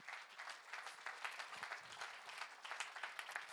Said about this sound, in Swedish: Den enda jag känner som har gjort så att gatorna tillhör oss, det är han. Vi kan ge honom en applåd.